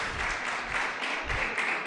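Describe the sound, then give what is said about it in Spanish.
A crowd at a sermon applauds steadily, many hands clapping at once into a dense, even wash of noise that holds at a fairly constant level without pause for the whole stretch. “Un aplauso para él.”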